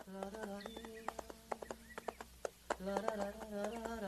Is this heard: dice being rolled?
no